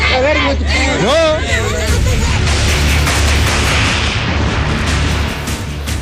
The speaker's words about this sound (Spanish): Oye, carnal, ¿eres consciente que estás tirando bala en una manifestación pacífica?